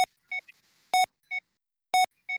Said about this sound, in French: Ah, je crois que le, patient est, est, sous anesthésie, ça y est. Ça, ça y est, ça y est, l'anesthésie vient, vient de faire effet, c'est pour ça qu'on a dit ce, ce petit bip.